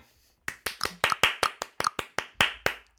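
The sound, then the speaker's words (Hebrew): A short burst of audience clapping, a few hands striking in a quick, slightly uneven patter of sharp claps that starts abruptly after a brief silence and continues steadily to the end. “ברוכים השבים לחלק ב' בספיישל ה-40 של פודקאסט שיט של אחרים בנושא איזון דיגיטלי. כפיים!”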